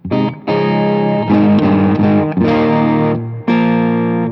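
Overdriven electric guitar through amp preamp distortion, with the master turned down so the power amp does not distort, playing sustained chords in several bursts with brief gaps, loud and smooth with a creamy, saturated tone and no talking.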